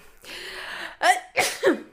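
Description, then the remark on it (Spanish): A drawn-out, breathy inhale builds up before a sharp sneeze, followed by two more quick nasal bursts in succession, caused by an allergy. “Jesús.”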